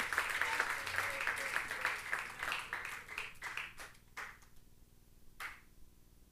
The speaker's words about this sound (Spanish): Denle un fuerte aplauso, iglesia.